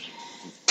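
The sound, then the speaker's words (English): A bar blender at the lobby bar of the Hyatt Zilara Cap Cana hotel grinds a frothy drink, its steady whirring rush suddenly surging much louder near the end of the short burst. No one speaks. “that was the sound at the lobby bar behind me as they're grinding something and making some frothy amazing thing.”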